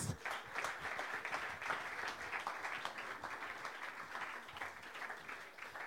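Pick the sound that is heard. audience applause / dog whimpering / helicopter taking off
audience applause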